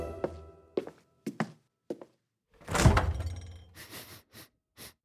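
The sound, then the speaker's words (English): A fridge door is opened: a few sharp knocks and thunks, then a loud, breathy whoosh as the seal gives, followed by several softer taps and rattles. No one speaks. “Let's investigate this fridge.”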